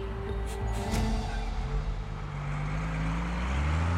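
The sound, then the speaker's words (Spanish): A bus engine drones steadily, a deep, loud rumble whose pitch climbs gradually as it accelerates, with a couple of brief clunks early on and no voices. “Sin pensarlo demasiado, sube a un autobús que lo llevará a la última estación del caso.”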